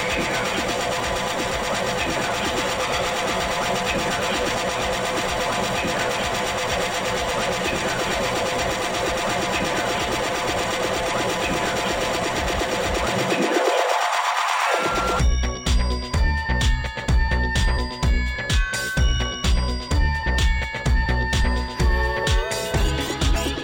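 Vaporwave music: a dense, hazy synth wash that dips into a filtered sweep, then breaks into a pulsing, chopped electronic loop with bright sustained tones and a steady beat.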